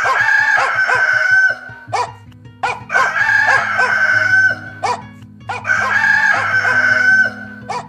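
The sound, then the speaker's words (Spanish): A speckled rooster crows three times in a row at a house in the early morning, loud, each long strained crow separated by short pauses, with a low sustained musical tone underneath. “En la casa de las Ruiz canta el gallo pinto y despierta a las hermanas”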